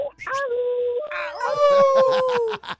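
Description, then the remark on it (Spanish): A person imitates a wolf howl, a single loud, drawn-out vocal wail that starts with a short yip, rises and holds, then slowly falls away. “Por ahí me ando pirateando y si no aúlla, no es el original.”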